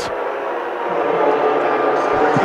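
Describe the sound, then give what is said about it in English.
A basketball arena crowd at a Fort Lewis women's game reacts in disagreement with a foul call: a dense, sustained roar of many voices that holds steady and swells slightly louder over a couple of seconds, with no single voice standing out. “you can hear the crowd.”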